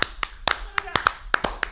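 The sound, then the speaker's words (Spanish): Brief applause for Canal América: about ten sharp, crisp hand claps at an uneven, slightly quickening pace, fairly loud, with short gaps between them, like a small group clapping. “Hay que dar un aplauso a Canal América.”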